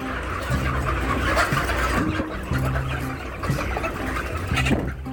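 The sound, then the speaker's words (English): A dense, continuous din of thousands of chickens clucking and calling at once inside a long, flat building in rural Indiana, with overlapping crowing-like calls rising out of the crowd, loud throughout, over a steady low mechanical hum. “They're calling and their rooster sounds and cock-a-doodle-doo and you know, and all that.”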